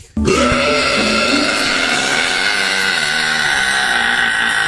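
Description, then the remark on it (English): A loud, drawn-out burp begins abruptly and rumbles on steadily for several seconds, rough and throaty, with no talking around it. “Imagine what we could accomplish as a nation if we were number one with both men and women when it came to burping.”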